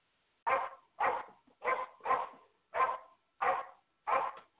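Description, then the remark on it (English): A dog barks seven times in a steady, evenly spaced rhythm, each bark short and loud, with quiet gaps between and no talking. “All right, somebody's dog barking, but that's oh, okay.”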